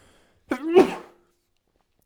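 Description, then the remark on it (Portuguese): A single forceful sneeze, a short voiced intake sharply followed by a loud breathy burst that trails off quickly, with silence around it. “Epá, vou espirrar, vou.”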